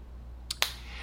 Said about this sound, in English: Carbon monoxide alarms mm. typically last seven to ten years. Which means California is about to start hearing a lot of this.